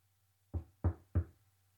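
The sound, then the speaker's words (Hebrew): Three firm, evenly spaced knocks on a door, fairly loud, with a faint low hum underneath and no voices. “היה זה, כך הוא תיאר, כאילו מדינת היהודים כולה מתדפקת על דלתות המוות שעוטפות את המנוח כדי לקיים את צוואתו. כאילו נוקשת היא באוזני המנוח”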